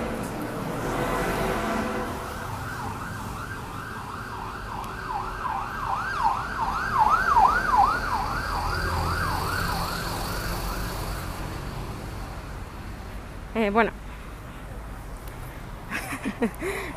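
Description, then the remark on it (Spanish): A loud ambulance siren wails past, its rapid rising-and-falling tone sweeping over steady street traffic for about ten seconds before fading away, followed by brief voices. “Oye, acabo de pasar una ambulancia muy ruidosa.”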